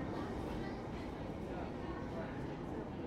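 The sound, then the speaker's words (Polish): Ambience in a London Underground station: a steady, dense rumble of trains and machinery fills the space, with a constant hiss and indistinct murmuring voices blended into the background throughout. “Znajdujemy się teraz w podziemiach londyńskiego metra.”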